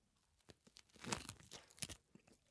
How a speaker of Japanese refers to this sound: 海苔の音はいい音なんだけどね